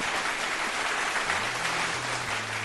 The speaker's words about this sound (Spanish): aquí sus aplausos para